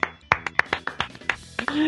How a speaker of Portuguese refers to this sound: Aplausos para vocês e para o sol.